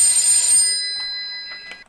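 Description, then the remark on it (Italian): A telephone rings with a bright, high-pitched electronic trill that fades out, followed by a couple of faint soft clicks near the end. No one speaks. “Ecco che squilla, eccolo che squilla.”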